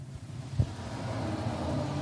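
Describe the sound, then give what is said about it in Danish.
A truck drives along the road at about 70 km/h, a little too fast, with a deep, steady engine drone that slowly grows louder as it approaches. A brief thump is heard early on, and no one speaks. “Så, nu kommer der en lastbil igen.”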